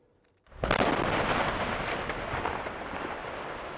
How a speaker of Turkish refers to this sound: Çünkü e, ormanın hemen yanı başında dinamitle patlatma gerçekleştiriliyor. O anları köylüler kaydetmişler ve evlerinin duvarlarında çatlak meydana geldiği için çok da tedirginler. Şimdi de bu sesi duyurmaya çalışıyorlar.